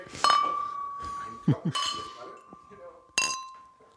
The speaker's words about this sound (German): Ja, auf, auf die Hamburger Biere nochmal anstoßen zum Schluss.